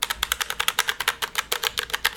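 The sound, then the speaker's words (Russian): Rapid, crisp clacking of keys on a newly bought mechanical keyboard, a steady run of about a dozen bright clicks with no voices, fairly loud. “Смотрите, клавиатуру купила новую.”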